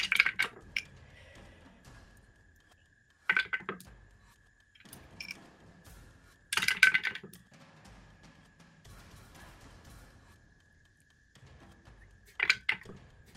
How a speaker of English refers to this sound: Ooh, dice.